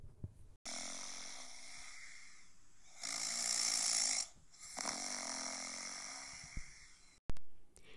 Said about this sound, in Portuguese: Os mosquitos zumbiam sob o sol quente, enquanto Niame, o deus do céu, continuava roncando cada vez mais.